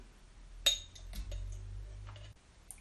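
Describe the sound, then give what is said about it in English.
Gooseberries drop into a glass jar with a sharp clink followed by a few softer taps and rattles, fairly quiet over a low background hum. “you've put them in the glass jar”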